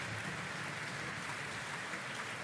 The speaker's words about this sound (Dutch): Het loopt nog door, hè? Wel een mooi applaus, hoor. Daar kan je niks van zeggen.